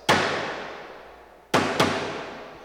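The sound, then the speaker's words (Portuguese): Three sharp knocking raps with a ringing, echoing decay: one single rap, then after a pause two more in quick succession, loud, with no voices. “Ó, pancada. Tipologia pancada.”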